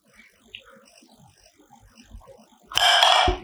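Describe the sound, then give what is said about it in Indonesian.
Faint, scattered ticks and small rattles give way to a sudden loud burst of harsh, ringing clatter near the end as a gasing spinning top is slammed down and whirs against a hard surface. No one speaks. “Iya sudah gasing tadi tang tang tang gitu.”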